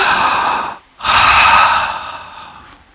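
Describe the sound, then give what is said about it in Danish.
A crowd of people draws a deep breath in together, a loud breathy rush, then pauses briefly before exhaling audibly as one, the sound fading gradually. “Kan I lige prøve alle sammen at tage sådan en dyb og sådan der.”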